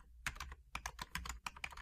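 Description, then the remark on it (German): A woman types at a desk: rapid clicking of keys on a computer keyboard, a quick irregular run of crisp taps in small bursts, with no one talking. “Sie hat tatsächlich wieder angefangen zu tippen.”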